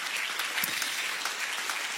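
A crowd applauds steadily, a dense wash of many hands clapping at an even loudness for the full two seconds, with no voices standing out above it. The applause is for the Urban Life Full Service team who look after the gathering.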